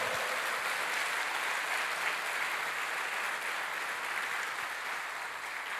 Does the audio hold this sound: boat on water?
no